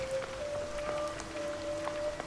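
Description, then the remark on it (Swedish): Light, steady misty rain hisses softly over a barren landscape under dark clouds, with scattered droplet ticks throughout, accompanied by a faint, thin sustained tone in the background. No one speaks. “Det är nästan som en, att ni rider in i en regndimma liksom, som omsluter landskapet här.”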